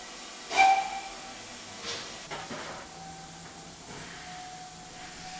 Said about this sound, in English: It's 1874. A train pulls out of London, heading for Brookwood in Surrey.